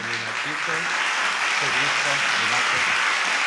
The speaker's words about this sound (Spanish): Todavía no sé cuáles son. ¿Estos serán los aplausos?